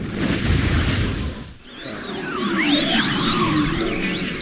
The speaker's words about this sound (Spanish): viene el agua, ¿escuchas? ya está.